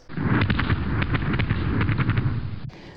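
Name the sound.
fireworks exploding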